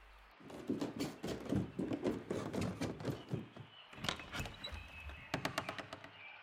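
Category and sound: household object, knocking on a door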